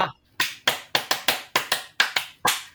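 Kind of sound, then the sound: crowd, hand clapping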